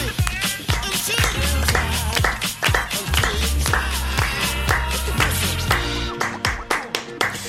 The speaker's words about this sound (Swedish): Jo, bara om ni klappar med såklart.